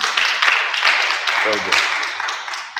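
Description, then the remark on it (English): A group applauds a woman who answered a question, with steady, dense clapping that holds at an even level throughout, with a brief voice rising through the middle. “Can you clap for her?”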